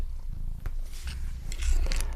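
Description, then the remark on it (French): A cat named Ruby purrs steadily, a low rhythmic rumble throughout, with scattered rustling and shuffling as it moves about. No one speaks. “Il y a aussi mon chat Ruby qui fout le bordel.”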